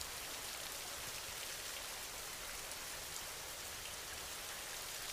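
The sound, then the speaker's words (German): Steady rain patters down in a dense, even hiss of countless raindrops striking a surface, constant and unbroken throughout, with no voices. “Und nimm den Rhythmus der Regentropfen wahr.”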